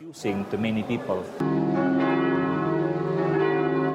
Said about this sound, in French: En Allemagne, pays d'origine de Benoît XVI, plusieurs églises ont fait sonner leurs cloches pendant ses obsèques.